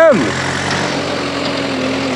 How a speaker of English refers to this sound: There's like a big tractor coming up behind me.